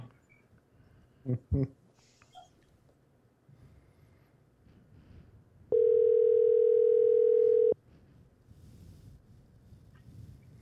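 A loud, steady telephone tone sounds once for about two seconds, clear, after a couple of brief thumps against a low, murmuring background, as a phone call is placed.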